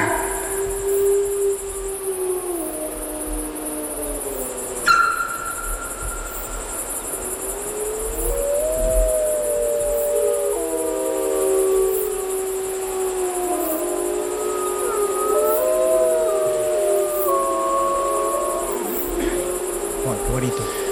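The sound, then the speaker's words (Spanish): A wolf pack howls together at night at its gathering place, several long voices rising and falling and overlapping in a steady chorus, with a faint hiss of background noise throughout and a brief knock near the start. “pero los lobos, que todas las noches se reunían en torno, perdón, que se reunían en torno a, un, a su aulladero, aullan por última vez y ya a partir de ahora la manada se medio dispersa y los aullidos dejan de escucharse en la noche.”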